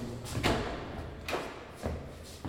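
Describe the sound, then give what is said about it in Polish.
A restroom door is handled and opened, giving a few dull thumps and knocks spaced unevenly over a couple of seconds, with no one speaking. “Tak, drzwi są już otwarte. Możemy wejść.”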